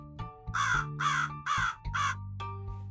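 crow cawing

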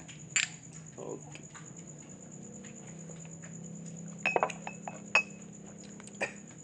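glasses clinking

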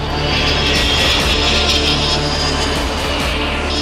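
airplane engine

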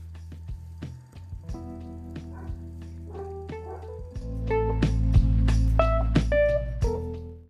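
dogs barking

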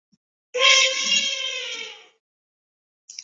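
elephant trumpeting

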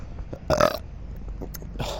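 burp

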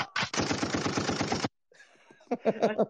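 gunfire sound effect

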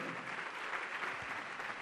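church audience applause

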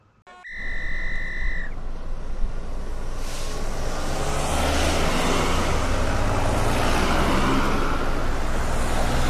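car driving off

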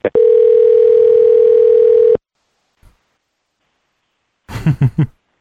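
outgoing phone call ringing

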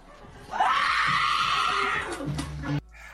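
woman's scream

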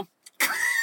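car engine being started

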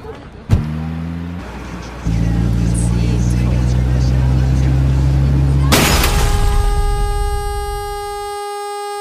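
car engine revving

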